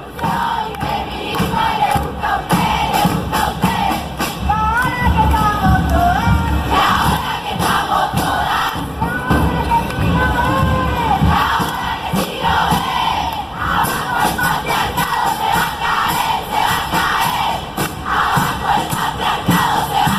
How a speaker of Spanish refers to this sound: Temblaba el Congreso con esas manifestaciones del 2018 cuando se discutió en el Senado. Eran cuadras y cuadras que temblaban las paredes con, ese, con esa canción